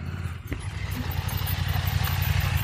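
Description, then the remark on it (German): A KTM motorcycle, called a 97 KTM, drives past on a race track, its engine droning steadily with a low rumble building slightly toward the end, with no voices over it. “Ja, ich hoffe, man hört die Karren ein bisschen hier vorbeifahren, denn äh, ja, jetzt kommt zum Beispiel gerade hier eine 97 KTM”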